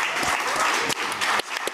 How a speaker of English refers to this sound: All right, here they are, George Pyne and Jay Williams. Really delighted to have these two guys on stage together. Could give them another round of applause before we start.